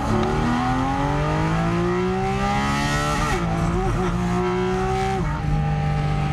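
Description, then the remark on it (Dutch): A 500 hp petrol sports car engine revs hard, running past 8,000 rpm, and climbs steadily in pitch, briefly dipping with quick gear changes before rising again, loud and continuous with no talking over it. “Maar een benzine is 5500, 6000, een beetje sportieve auto. Misschien een keer 7000, heel soms 8000. Ja, en deze gaat gewoon helemaal door.”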